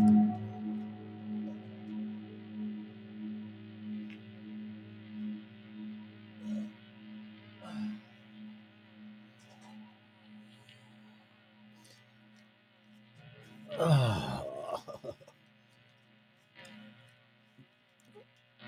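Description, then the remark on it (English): A steady low electrical buzz from an electric guitar drones throughout, layered with faint higher hum, interrupted near the end by a brief louder scrape or rustle before the buzz continues. “I hear a buzzing, but smoking too much pot.”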